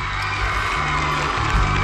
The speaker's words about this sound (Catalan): Són la coral de gospel, el grup de gospel …, els que demano un altre fort aplaudiment, que no sé si aquest s'ha sentit prou, si us plau. Un altre, ara, ara.